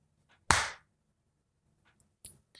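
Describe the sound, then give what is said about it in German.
A single loud, sharp hand clap, made to synchronise video recordings, with a brief ringing tail, then near silence broken by a couple of faint, softer clicks. “Äh, muss ich noch klatsche.”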